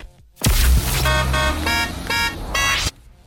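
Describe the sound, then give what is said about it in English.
A Renault Clio car horn beeps loudly, about four short honks in quick succession after a brief burst of noise, with no talking. “Yes, so you're listening out for your cue to call, which is the Renault Clio beep.”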